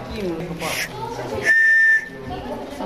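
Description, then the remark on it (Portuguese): A single sharp, shrill blast from an emergency whistle at a school, lasting about half a second, loud, with indistinct voices and background chatter before and after it. “Deixa lá ver o apito. Para quando a gente estiver debaixo de, de, de pedaços de, edifícios e de escombros, a gente pode apitar para chamar a atenção de alguma pessoa.”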